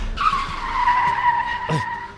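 Car tires screech loudly under hard braking, a sustained high-pitched squeal lasting about two seconds, prominent, with a brief rougher burst near the end before it cuts off.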